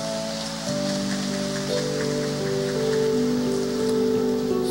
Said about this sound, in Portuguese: Dá uma salva de palmas para essa palavra de Deus.